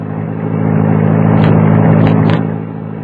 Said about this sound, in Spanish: Ella creyó que podía escapar sola, pero Leopoldo estaba oculto tras el asiento trasero y cuando el auto ya iba en plena calle, saltó a su lado.